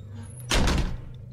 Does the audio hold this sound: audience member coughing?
no